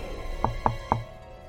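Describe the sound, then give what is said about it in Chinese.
Someone outside knocks on a door: three quick, solid knocks, slightly uneven in spacing, each a short hollow thud over a faint steady background hum, with no voices. “这时，门外有人敲门”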